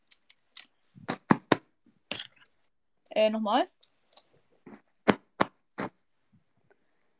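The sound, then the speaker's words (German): A pillow from a holiday apartment is handled close to the microphone, giving a series of sharp, crisp rustling and crinkling bursts at irregular intervals, with a short spoken interjection in the middle. “und jetzt habe ich hier für dich in der Hand ein Kissen.”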